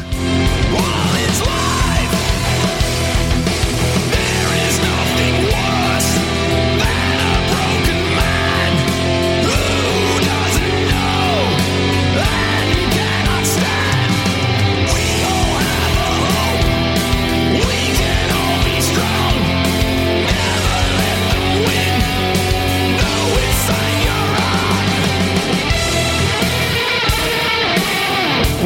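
Loud rock music with a wailing electric guitar solo of bending, soaring notes over a driving bass and drums; the band drops out just before the end.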